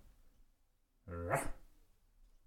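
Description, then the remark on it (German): A person imitates a dog's bark with one short, loud, woof-like vocal burst, preceded and followed by quiet background. “Aber welcher Hund macht Wow oder Wuff?”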